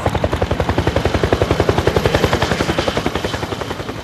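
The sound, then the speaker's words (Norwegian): A helicopter's rotor thumps in a fast, steady pulse, loud, with a whining engine underneath and no voices throughout, as a Christmas tree is hooked on to be flown into a living room. “Så nå er det bare å hekte på juletreet og fly det rett inn i stua.”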